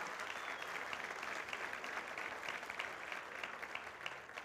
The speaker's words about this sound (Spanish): Dale fuerte el aplauso al Señor, iglesia, en esta mañana.